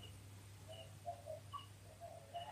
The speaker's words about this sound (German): es sind Grillen, die zwir zwirbeln, ziepen.